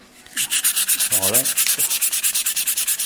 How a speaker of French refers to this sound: Du balsamo. c'est une essence un peu exotique. Et en fait. Là, tu nous le frottes. Avec un peu de laine de verre.